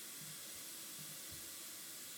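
Water runs from a tap in a steady, continuous hiss as someone gets some water to drink. It is fairly quiet and lasts a couple of seconds, with no one speaking.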